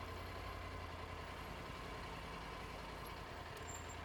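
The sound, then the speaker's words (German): A motorcycle engine runs steadily with a low, constant rumble and even loudness throughout, holding at a constant level rather than swelling past, with no one talking. “Ja, jetzt habe ich das Motorrad kurz”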